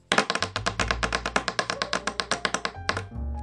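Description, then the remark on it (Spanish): A quick, steady run of sharp taps from a pencil and pen drumming on a tabletop as a drumroll, fairly loud, stopping abruptly near the end. “Y voy a hacer un ruido con este lápiz y esta lapicera que tengo en la mesa.”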